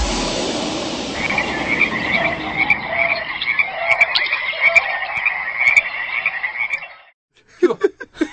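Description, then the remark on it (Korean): A dense chorus of Japanese tree frogs croaking steadily for about seven seconds, loud with rapid overlapping trills, then a brief pause before a few more sharp croaks. “마지막, 마지막 그 울음소리는 청개구리 울음소리였습니다.”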